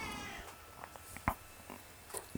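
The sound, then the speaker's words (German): A cat meows briefly at the start, followed by a few soft clicks and taps. “Naja, an die ganzen Battle Rap Ligenbesitzer da draußen, wenn ihr auch eine Katze habt, Geht ihr euch auch so auf den Sack?”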